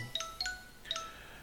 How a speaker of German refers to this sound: So, das war mein Handy, einfach ignorieren.